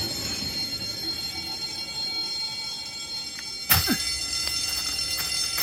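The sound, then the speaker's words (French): The 8 o'clock train pulling away with steady mechanical rumble, then a sudden loud burst of high, metallic wheel squealing that continues in sharp, screeching bursts. No one speaks. “Le train de 8 heures.”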